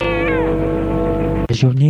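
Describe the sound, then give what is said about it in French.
A cat lets out one loud, drawn-out meow, sustained for over a second, then a person briefly starts speaking. “C'est le chat qui vide l'assiette.”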